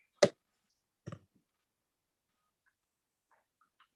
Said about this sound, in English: Yes, we're gonna roll the dice. It's time to roll the dice.